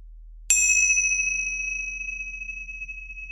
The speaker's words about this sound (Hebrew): ולטובת אלה שרק עכשיו מצטרפים, אז יש לנו טיפה אה, אקזוטיקה, ויש לנו את מצילות הפתיחה והסיום שילוו אותנו אל התרגול וממנו.